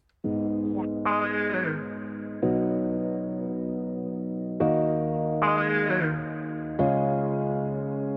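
Opening bars of a pop song: loud, sustained synth chords shifting every second or two in a repeating pattern, with bright upper layers swelling in and out, and no singing yet.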